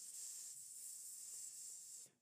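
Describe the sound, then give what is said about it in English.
A drawn-out hissing "s" from a human voice as a speaker stresses a plural ending, steady for about two seconds before cutting off, sounding almost like a snake's hiss. “That's not a snake, that's me putting an emphasis on the fact that there's more than one.”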